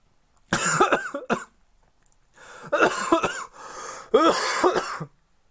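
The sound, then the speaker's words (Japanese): A fairly loud coughing fit: a quick cluster of harsh coughs, a brief pause, then a longer run of strained, throaty coughs with no talking. “あすいません、咳込みました。”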